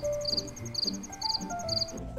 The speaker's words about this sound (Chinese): 某一天，艳阳高照，天气依旧十分的炎热，一群蚂蚁们正合力搬着一个巨大的食物要回到蚂蚁窝，唯独有一只蟋蟀正在一旁悠哉的休息唱歌。